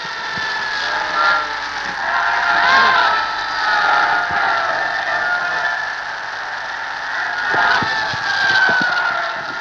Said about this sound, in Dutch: U hoort hoe het volk juicht.